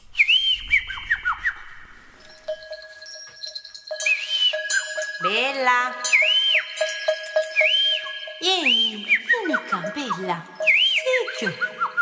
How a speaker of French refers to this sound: elle va faire les deux bourdons, l'un après l'autre